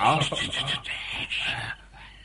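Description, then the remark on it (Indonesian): Steady, rhythmic scraping and crunching human footsteps walking on the roof ridge of an inn, moderately loud, stopping abruptly near the end. “Aku mendengar langkah kaki manusia di atas bubungan rumah penginapan ini, wah.”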